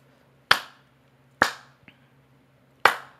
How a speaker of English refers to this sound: We're gonna do this clap real quick and we just gonna get right back into it.